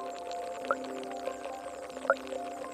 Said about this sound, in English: The drip like sound is the exact inverse. That's the bubble of CO2 escaping the gas tube and heading to the diffuser.